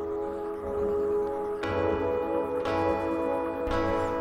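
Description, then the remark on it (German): Sustained choir and keyboard chords shimmer with a hard-set, choppy tremolo effect, while the choir and keyboards pulse steadily in quarter notes, roughly once a second. It is played loud, with no talking. “das hier sind wieder die Akkorde von dem Part davor, verfremdet durch einen hart eingestellten Tremolo-Effekt. Dazu der Chor und die Keyboards, die in Vierteln den Puls geben, auch wieder mit der entsprechenden Atmosphäre.”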